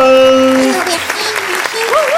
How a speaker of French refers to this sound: Et tout de suite, on accueille Zen, un nouveau venu sur la scène du Rigolo Club. On applaudit bien fort.